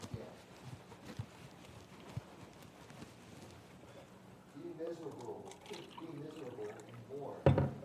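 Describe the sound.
Water pours into a glass with a soft, steady splashing trickle while indistinct voices murmur in the background and a brief clunk sounds near the end.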